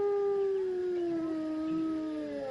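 A single wolf howls in one long, sustained note that slowly falls in pitch, with clear harmonics and no other sounds or voices around it.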